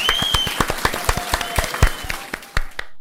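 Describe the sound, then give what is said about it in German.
A burst of applause with sharp, crisp claps overlapping in a steady, lively patter for about three seconds, then stopping abruptly. No one speaks over it. “Ich habe dich gerade gefragt, wo der Applaus bleibt.”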